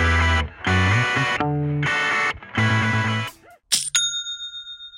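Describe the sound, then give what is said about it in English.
A Shopify sale notification: a loud burst of bright, distorted musical tones in quick chunks, then a single clear bell-like ding that rings out and fades, with no talking. “That's the sound of another sale on Shopify, and the moment another business's dreams become reality.”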